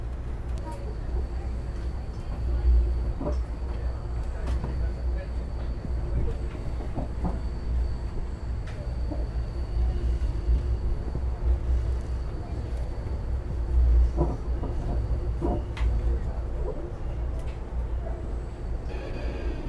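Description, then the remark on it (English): A train's wheels keep up a thin, high-pitched squeal on a tight curve beneath the carriages as the train goes down at quite an angle, over a deep, steady rumble, with occasional clanks and knocks from the carriages. “And you can hear from the squeaking beneath us how tight the curve is.”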